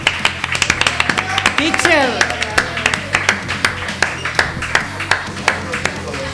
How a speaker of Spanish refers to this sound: así que un aplauso también